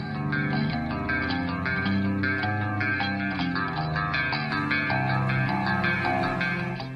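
A recorded heavy rock song plays steadily and loudly, with dense guitar and a driving beat filling the whole stretch, with no one talking over it.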